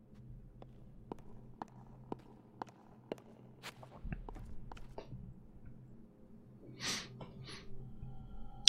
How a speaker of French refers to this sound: le son des pas qui résonne, c'est assez ouf.